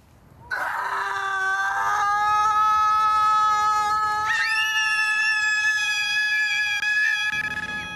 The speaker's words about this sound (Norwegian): Den verdskjente samtidskunstneren har eh, invitert 300 høglytte nordmenn til å skrike i Ekebergskogen, omtrent på utsiktspunktet der Edvard Munch eh, henta motivet til Skrik.